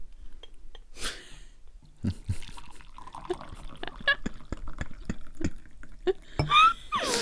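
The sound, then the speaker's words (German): Tea being poured into a cup: a brief rush of liquid, then a run of splashy drips, gurgles and small clinks at an uneven rhythm, fairly loud, with no talking. “Das hört man jetzt ja voll im Mikro.”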